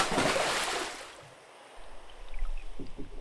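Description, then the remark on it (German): A loud, broad splash of a person in a diving suit jumping into water, fading into a muffled, low underwater rumble with faint bubbling and soft gurgles as they dive down. No voices are heard. “Also, ich springe einfach mal ins Wasser an der Stelle G9.”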